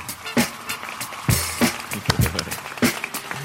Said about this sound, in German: Das berühmteste Klatschgeräusch der Welt mittlerweile, meine Damen und Herren. Dann weiß man, man ist beim Podcast.